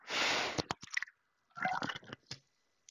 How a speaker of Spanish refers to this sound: me vas a dar un segundo que beba un sorbito de agua.